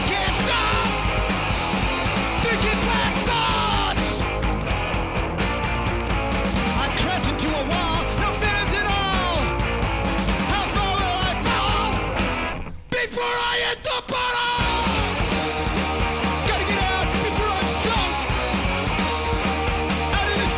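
Loud, dense punk rock with distorted guitars, pounding drums and raw screamed vocals, playing at full intensity throughout except for a brief thinned-out break near the end before the band crashes back in.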